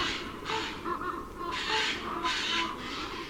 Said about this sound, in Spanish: Y bandos de arrendajos deambulan valle abajo.